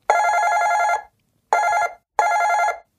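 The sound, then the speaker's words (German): Laura's phone rings downstairs in three loud bursts: one long ring followed by two shorter ones, with brief silent gaps between them and no voices. “Das war Lauras Klingeln.”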